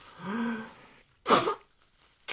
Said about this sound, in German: jetzt muss ich mir nochmal die Nase putzen.